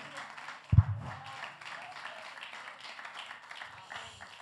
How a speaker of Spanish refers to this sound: Denle el aplauso al Dios de la gloria en el día de hoy.